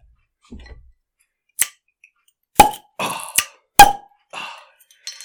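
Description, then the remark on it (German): A beer bottle being opened: a quick series of sharp clicks and pops, two of them loud with a brief ringing glassy tone, amid faint clinks and rustles. No one speaks. “Also Bier auf, Korn einschenken und los geht's.”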